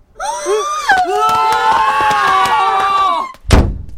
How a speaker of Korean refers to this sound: 열렸던 문은 세차게 닫혔고 닫힌 문 뒤로 공황 상태의 비명이 계속해서 울렸다. 팝스타가 왕림한들 이보다 더 요란한 반응을 보일 수는 없을 것 같았다.